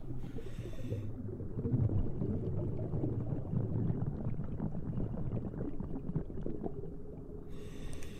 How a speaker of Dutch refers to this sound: Water versterkt geluid. Dus wat wij horen, dat is eh, scheepvaart. En voor de rest hoor je jezelf het meest eigenlijk. Dus de ademhaling, je bellenbanen, dat hoor je.